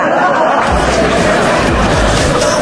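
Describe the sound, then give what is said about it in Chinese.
An audience at a Xi'an stand-up comedy club open mic breaks into applause of encouragement, dense overlapping clapping that swells in after a brief moment and stays loud and steady to the end, with a faint murmur of crowd voices underneath. “送掌声鼓励。”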